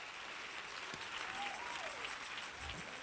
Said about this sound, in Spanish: Si le va a dar el aplauso.